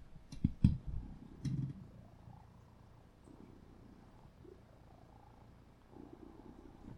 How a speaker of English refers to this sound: Let's see if you can hear him. Oh, I know you heard that. Listen to him purr.